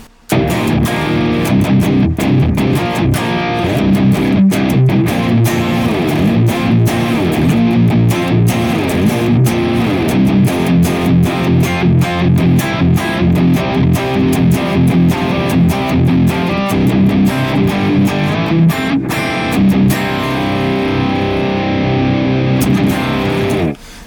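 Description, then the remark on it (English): A heavily distorted electric guitar played through the Neural DSP Archetype Nolly amp-modeler plugin, running in a stereo pair of the Klon Kraken, chugs in tight palm-muted rhythms with ringing chords, loud and dense throughout, with a saturated tone and no voices. “Now, our neural DSP archetype Nolly running in stereo pair of the Klon Kraken sounds like this.”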